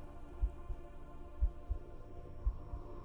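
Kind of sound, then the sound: human body sound, pulsing heartbeat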